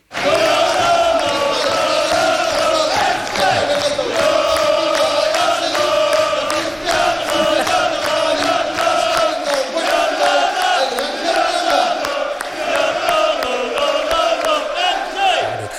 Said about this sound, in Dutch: Ehm, eh, we hoorden het publiek in het, eh, in het voetbalstadion eh, van gisteren. NEC tegen de Graafschap.